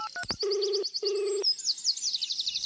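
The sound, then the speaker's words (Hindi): A phone number is dialed again: a few quick keypad dialing beeps, then two steady ringback tones in a row, while birds chirp and tweet continuously in the background. “मुझे बड़ा अजीब लगा मैंने फिर से कॉल लगाया”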